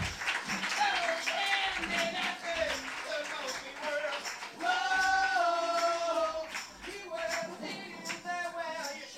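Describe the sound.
An audience at Café La Palma applauds musicians entering live, the first applause of the afternoon, a steady patter of many hands clapping throughout while a man talks loudly over it.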